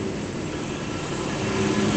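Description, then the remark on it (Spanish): Heavy trucks roar past on a road, a dense, continuous rumble of engines and tyres that swells slightly toward the end, with no voices over it. “Uy, joder, qué de camiones.”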